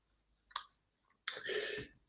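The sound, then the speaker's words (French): Two clicks on a computer keyboard with no one talking: a brief sharp tap, then after a pause a louder, longer clattering press that rattles for about half a second. “Euh, mon clavier ne marche plus, mais je vais essayer de retrouver...”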